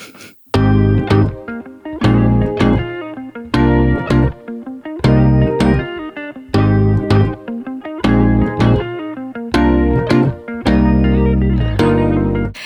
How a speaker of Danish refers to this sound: Jamen prøv at høre, lad os lige uh, tage en jingle. Ja, vi tager en jingle.